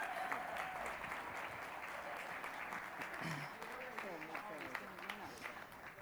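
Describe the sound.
Sustained audience applause welcoming a guest as he comes to the platform, a dense steady wash of many hands clapping at a constant loudness, with a voice faintly talking underneath it.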